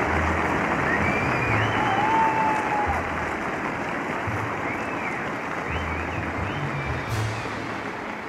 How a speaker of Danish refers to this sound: Bliver hun mødt af klapsalver.